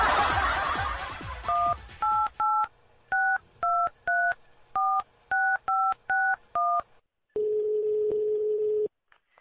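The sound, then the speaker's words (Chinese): A rapid run of about a dozen short, crisp touch-tone beeps as a phone number is dialed for a call to Taiyuan, Shanxi, followed by a steady, lower-pitched tone lasting over a second, with a brief burst of noise beforehand. “我鼓起勇气给你打这个电话”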